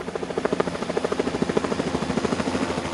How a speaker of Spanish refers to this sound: El actor neoyorquino arribó a la alfombra roja de Top Gun Mavericks pilotando un helicóptero.